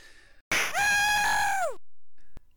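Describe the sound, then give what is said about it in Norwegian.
A single loud, dramatic scream, high-pitched and sustained for just over a second before its pitch sags at the end, followed by near silence. “som Kevin McAllister i Hjemme alene når han tar på seg uh, og med et sånt skrik”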